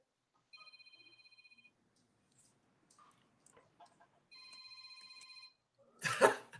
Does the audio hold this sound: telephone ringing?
yes